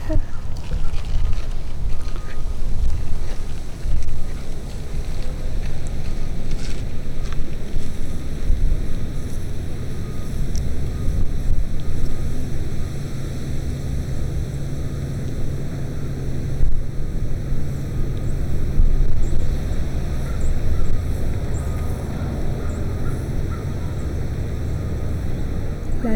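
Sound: wind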